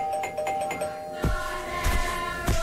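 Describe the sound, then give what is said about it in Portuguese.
A doorbell rings with a series of bright, sustained chime tones struck in quick succession, fairly loud, with no one speaking. “E tocam à campainha.”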